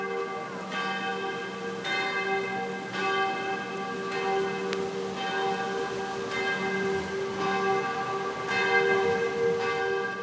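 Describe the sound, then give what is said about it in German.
Church bells of the Heiliggeistkirche in Bern, Switzerland, peal continuously at midday, several bells striking in overlapping rhythm with rich, lingering harmonic tones, moderately loud, with faint outdoor ambience and no talking. “Das, was ihr jetzt gehört, ist die Heilige Geistkirche von Bern. Die habe ich heute extra für euch noch aufgenommen, als ich dort war, zum Mittag.”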